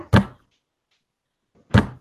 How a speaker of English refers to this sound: the banging's coming from the front door? Yep.